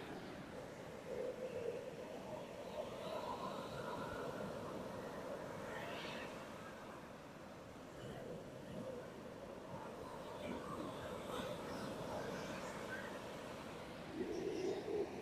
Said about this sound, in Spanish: pero tengo el sonido del mar. No sé qué tal lo oigan y si se oye. Lo voy a dejar un poquito para centrarnos con ese sonido.